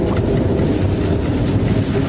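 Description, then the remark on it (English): A subway train rumbles past beneath an apartment, a loud, steady low roar with a rattling mechanical texture that fills the whole stretch without letting up. No voices are heard. “Right above the subway!”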